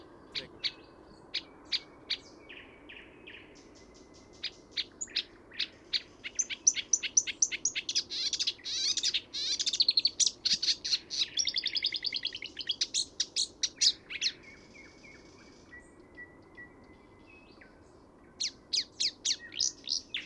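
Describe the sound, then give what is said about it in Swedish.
A busy chorus of birdsong, a marsh warbler mimicking willow warbler, chaffinch, whitethroat, sedge warbler, greenfinch, wheatear, whinchat, white wagtail, tree sparrow and starling, trilling and chirping over each other, peaking in the middle, easing briefly, then resuming with quick bright calls. No voices. “Kärrsångaren kan härma lövsångare, bofink, törnsångare, sävsångare, grönfink, stenskvätta, buskskvätta, sädesärla, pilfink, stare,”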